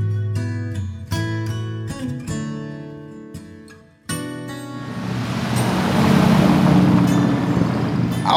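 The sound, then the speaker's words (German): Vintage cars drive past one after another as part of a tour, their engines rumbling and revving in loud bursts, then a swelling, noisy whoosh as another rolls through. No one speaks. “auffällig ist hier, dass hier in einer Tour irgendwelche Oldtimer durchfahren.”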